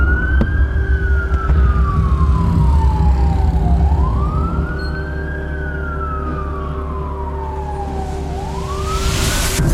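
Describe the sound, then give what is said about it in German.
Wailing sirens of police pickups and ambulances rise and fall in slow sweeps, loud, as they make their way through dense morning traffic in Kabul in late October 2009, over a rumble of traffic and engine noise, with a steady tone underneath. “Polizeipickups und Ambulanzen bahnen sich einen Weg durch den dichten morgendlichen Verkehr.”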